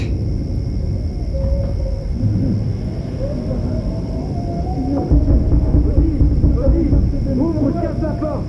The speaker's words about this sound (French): On dirait qu'il y a de l'orage. Oh, un éclair Oh, il y a des éclairs, regarde oh.